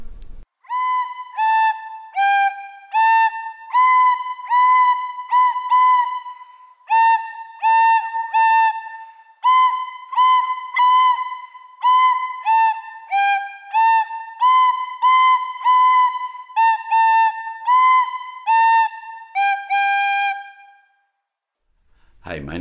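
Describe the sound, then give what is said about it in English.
A seven-year-old child from Bridgend plays Mary Had a Little Lamb on a whistle: a simple, slightly hesitant tune of bright, breathy notes in short stepwise phrases with brief pauses between them, clear, with no talking. “I play just the whistle. I play Mary Had a Little Lamb.”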